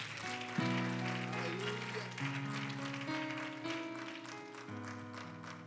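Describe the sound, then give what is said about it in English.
An audience claps steadily in praise to the Lord, a dense crackling wash of many hands that carries on without pause, with sustained organ chords shifting underneath. “In the name of Jesus, in the name of Jesus, I wonder if we could clap our hands one more time to the Lord and give him praise right now.”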